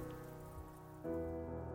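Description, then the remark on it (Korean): Heavy rain pours steadily, a dense continuous wash that grows a little louder partway through. No voices are heard. “그런데 그날 억수 같은 비와 천둥에 겁이 들린 상태여서 잠을 늦게까지 이루지 못하다가 새벽에 나도 모르게 잠이 들었던 듯 합니다.”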